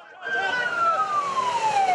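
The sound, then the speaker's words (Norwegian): An ambulance siren wails loudly and steadily, its tone sliding slowly downward as it passes by, over a dense wash of background noise; ambulances shuttling between an airport and a hospital through the night after a terrorist attack at the airport. “Ambulansene kjørte i skytteltrafikk mellom flyplassen og sykehuset gjennom natten”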